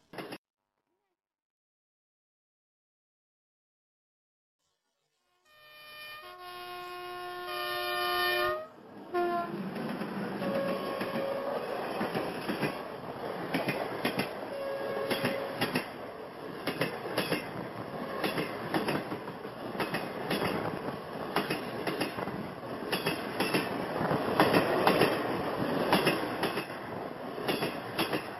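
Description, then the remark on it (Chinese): After a few seconds of silence, a train horn sounds a sustained chord, then a steady, loud rumble of a train rolling through the night along the tracks, coming closer, takes over, with rhythmic clicks and clatter running to the end. “穿过黑夜，传来轰隆轰隆的声音。沿着轨道越来越近，静静的屏住呼吸，你就能听见火车呼呼的喘气。”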